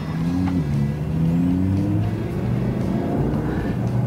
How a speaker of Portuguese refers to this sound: Bom, esse é um dos últimos carros que agora a gente vai ter aspirado ainda, o motor V10. Então, a, a, o grande diferencial dele, é, que realmente impressiona as pessoas, é o barulho,